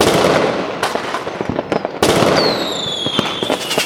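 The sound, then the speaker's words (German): Fireworks crackle and pop in a dense, loud barrage of sharp bursts, with a high whistling streak descending in pitch midway through. “Sein Feuerwerk sei ihm jetzt spendiert.”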